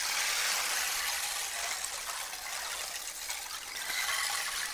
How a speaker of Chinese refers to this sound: 它这个就是 很像海浪的声音，给大家听一下， 对对对对，然后慢一点，有点像流水声。